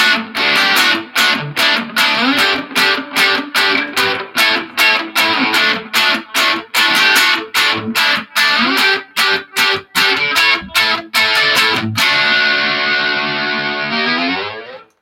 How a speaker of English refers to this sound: Oh, sounds great. And few people know this, but he is actually playing a ukulele that has two broken strings. I know it's amazing what he can do with only amazing. Two strings.